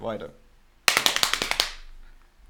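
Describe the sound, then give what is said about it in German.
A quick run of about eight or nine sharp hand slaps on stiff thighs sore from muscle ache, fairly loud in a steady rapid rhythm, following a brief moment of voice. “Okay, ähm, pass auf, dann schlage ich jetzt auf meine äh, yes. noch etwas steifen, von Muskelkater geprägten äh, mm. Fahrrad”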